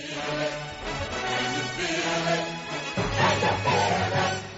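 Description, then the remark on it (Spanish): A stretch of closing music ending a broadcast program plays on its own with no talking, rich sustained tones at a steady, moderately loud level, swelling fuller with a deeper bass line partway through. “Siempre con música ponemos el punto final a Libertad Capital.”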